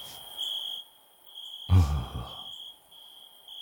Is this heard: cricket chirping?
yes